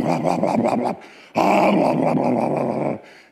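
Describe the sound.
A voice imitates the rumbling idle of a Camaro engine in neutral, loud, in two gravelly growling bursts separated by a brief pause, the second one longer and steadier.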